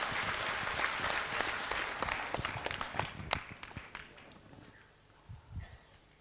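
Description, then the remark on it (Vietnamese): A round of applause from a group, dense rapid clapping that stays steady for about four seconds, then thins out and fades into a few scattered claps. “dành cho bạn một tràng vỗ tay”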